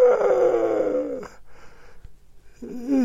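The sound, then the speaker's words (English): A long, drawn-out human yawn with a voiced, descending groaning tone, followed by a brief pause and a second breathy vocal exhale starting near the end. Fairly loud, with no speech. “that, that was a real yawn.”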